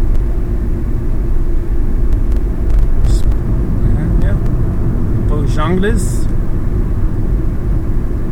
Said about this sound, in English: buttload of cars going the other direction.